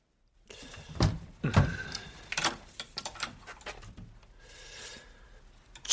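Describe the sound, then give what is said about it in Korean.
A wardrobe door in the main bedroom of a home is opened: two solid knocks of the latch and handle, then a run of small wooden clicks and rattles, a soft rustling swish, and a final bump. “책상에 앉아 시를 쓰려던 시인은 안방에 들어가 옷장 문을 열어보았다.”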